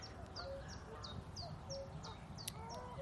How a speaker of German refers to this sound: Eine Gans. Ich finde, hört sich an wie ein Esel auch ein bisschen.